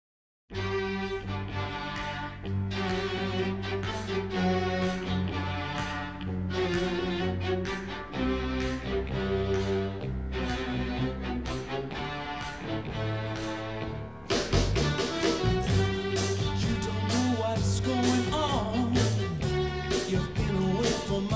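A full-band rock song plays steadily and loud, with driving drums, bass and guitars; around the midpoint the mix thickens and brightens into a busier, louder section.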